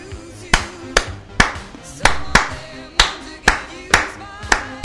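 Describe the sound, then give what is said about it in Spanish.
Crisp hand claps beat out a syncopated son clave pattern, grouped unevenly and repeating for several cycles over a faint background murmur. “Esto es clave de son.”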